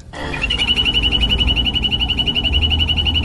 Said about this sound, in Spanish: Así llama una rana dorada a la otra. Parece una ah, alarma, hola. Está chévere. Sí, las ranas doradas que habitan en el Pacífico colombiano están en el Cauca, están en, Valle del Cauca, en Chocó.